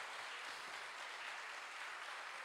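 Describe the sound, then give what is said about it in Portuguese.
A church audience applauding for Christ during an evening service, a steady dense wash of many hands clapping at even loudness throughout, with no voices standing out above it. “Vamos aplaudir a Cristo nesta noite, irmãos.”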